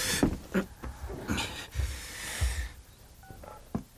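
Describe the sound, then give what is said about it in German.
Two short electronic phone keypad tones beep in quick succession near the end as someone dials a call, following a stretch of rustling, breathy noise with no speech. “Dann rufe ich jetzt Kotter äh, an.”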